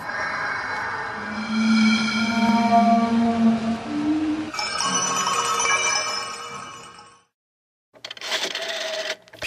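A telephone rings loudly in ringing, bell-like bursts, then a brief silence before a shorter ring. No one speaks.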